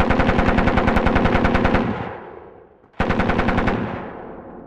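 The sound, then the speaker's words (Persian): Two loud, rapid bursts of machine-gun fire, each a steady rattle of closely spaced shots lasting under two seconds, separated by a brief decaying echo before the second burst. “الان چی بود صدای رگبار چی بود”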